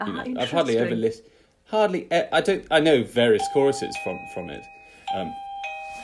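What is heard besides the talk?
doorbell ringing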